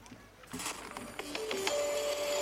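A small parrot squawks up close in a rapid series of harsh, raspy bursts, ending in a few thin, steady whistling notes, with no talking over it.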